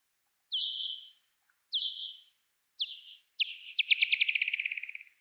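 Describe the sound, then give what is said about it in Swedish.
Bat echolocation feeding buzz from a foraging bat closing in on prey: three clear, evenly spaced downward chirps, then a rapid run of pulses that speeds into a buzzing trill and fades, heard alone against silence. “Så man hör när de liksom skickar ut många små ekopejningar snabbare och snabbare ju närmare de kommer för att lokalisera byten.”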